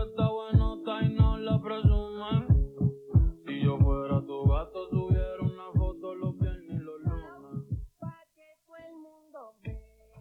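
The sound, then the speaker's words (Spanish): A reggaeton track plays with a heavy, throbbing bass beat pulsing steadily under layered synth melody and sung vocals, loud, thinning out near the end. “… del álbum …, del disco más escuchado de Spotify del 2022”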